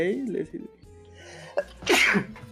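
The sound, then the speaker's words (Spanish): A person speaks briefly, then after a short pause lets out a single loud sneeze with a quick sharp intake just before the forceful burst. “Salud.”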